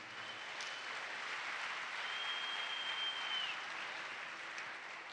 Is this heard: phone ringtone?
no